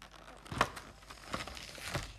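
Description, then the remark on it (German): Crinkly tearing of a foil trading card pack, with a few sharp rips and rustles spread over a couple of seconds, no voices present. “das jetzt aufgemacht”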